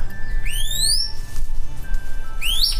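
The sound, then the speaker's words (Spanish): The whistling song of a chestnut-capped piha (Lipaugus weberi), a bird endemic to Colombia: two loud, ringing upslurred whistles about two seconds apart, sharp, over a low steady background rumble. “El arrierito, llamado así por su canto similar al silbido de un arriero,”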